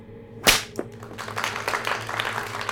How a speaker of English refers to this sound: A whip! Yeehaw!